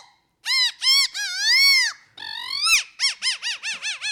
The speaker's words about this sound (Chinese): 所以这个叫做口弦。那看完它的造型之后，哈，来我们来听听看它的声音是怎么样的呈现啊，来。